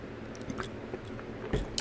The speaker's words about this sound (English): Oh man. That's good water.